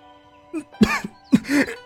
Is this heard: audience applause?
no